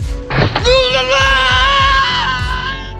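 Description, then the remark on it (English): A man lets out a long, loud, sustained scream that holds steady for over two seconds before trailing off, with a steady rhythmic low thumping underneath: actor David Patrick Kelly's movie scream as Arnold drops him off a cliff. “Yes, David Patrick Kelly has my favorite scream in a movie when uh, Arnold drops him off the cliff.”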